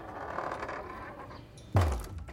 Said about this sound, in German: Kaum waren wir beide drin, schloss der Dicke die Tür.